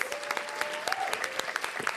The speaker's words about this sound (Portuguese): Salva de palmas, galera. Clube Barbichos.